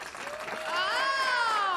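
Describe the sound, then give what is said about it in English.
A short burst of audience applause voting on whether a contestant makes it to the next round: a steady crackle of clapping joined by a sustained, rising vocal cheer that grows louder toward the end. “So what do we say, gang? Does he make it to the next round by applause?”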